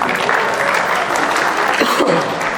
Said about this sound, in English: I think I deserve a round of applause.